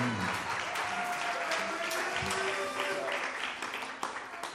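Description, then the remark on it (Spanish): A concert audience applauds steadily after a band's song, dense clapping filling the space at moderate volume, with faint voices and scattered cheers mixed in before it begins to thin out near the end. “Un aplauso. Gracias, gracias.”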